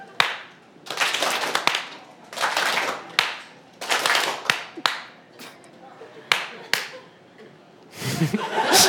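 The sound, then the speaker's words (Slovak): Bursts of audience clapping in a clapping exercise, where the audience claps once in response to the speaker's single clap and stays silent after two claps. Short rounds are separated by sharp single claps, with loose, uneven applause swelling and cutting off repeatedly, and some chuckling at the end. “Ja keď tlesknem raz, tak vy tlesknete? Dvakrát.”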